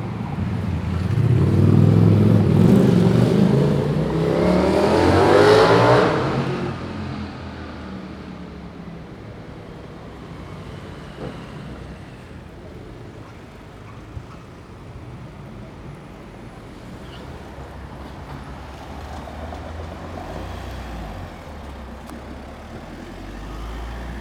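Busy street traffic on Thaliastraße in Vienna, recorded on 5 September 2019: a loud vehicle roars past in the first few seconds, then a steady low rumble of engines and passing cars continues.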